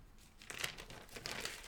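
Paper note pages being flipped and handled, a brief crinkly rustling with a few quick papery bursts, heard on its own without any talking.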